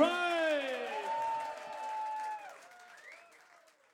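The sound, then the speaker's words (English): Audience applause with a dense patter of clapping, overlaid by sustained cheering and gliding whoops, all fading gradually over about four seconds. “Geef een applaus”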